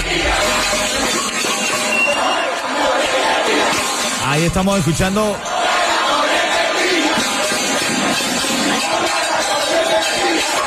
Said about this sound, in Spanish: Bueno, cientos de personas salen a protestar contra el gobierno en Pinar del Río. Se calentó allá, hermano.